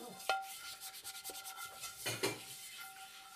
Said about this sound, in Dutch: Het is een pan.